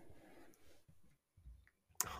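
Three dice rattle and tumble across a surface in a few soft, uneven bursts, ending with one sharper clack as they come to rest on 1, 3 and 8. They are rolled for an animal-lore check. The sound is fairly quiet and no one speaks.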